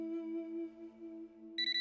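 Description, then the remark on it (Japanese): An electronic telephone ringing tone heard from inside the Yamagata residence, from a call placed on a mobile phone, three rings: a steady buzzing hum, then a quick burst of three high, bright chirps at the very end, fairly clear with no voices. “すると、山形邸の中から3回の呼び出し音が聞こえた。”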